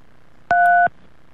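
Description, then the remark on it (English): A single telephone keypad tone for button 3, pressed to choose an option in an automated phone menu: a steady, two-pitched beep lasting about a third of a second, with soft clicks at its start and end, alone over faint background hiss. “You have pressed 3.”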